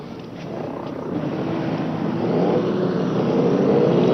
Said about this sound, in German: Unterdessen hat der Fahrzeugverkehr hier doch ziemlich stark zugenommen. Die großen Fernlaster, auch die kleinen Wagen sind in viel größerer Zahl angekommen und fahren hier vorbei.